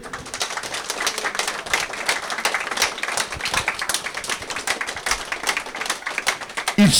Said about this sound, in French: J'aimerais bien que les élèves de collège et d'école applaudissent et s'applaudissent mutuellement